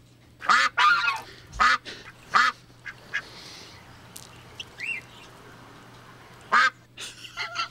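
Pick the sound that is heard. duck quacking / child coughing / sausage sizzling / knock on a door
duck quacking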